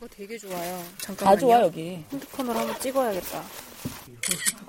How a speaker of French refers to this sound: La vue est si spectaculaire qu'elle se saisit automatiquement de son appareil photo pour capturer des images des formations rocheuses, des arbres verdoyants et l'océan bleu pétillant parsemé de petites îles.